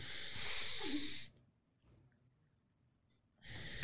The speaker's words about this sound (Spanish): Inhalemos.